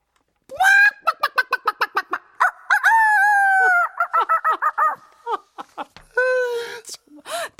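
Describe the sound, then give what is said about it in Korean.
A person imitates a chicken, starting with a rapid series of sharp clucks, then a drawn-out crowing call, more clucking bursts, and a final stretched crow, loud with no background. “대본의 반이 닭소리야.”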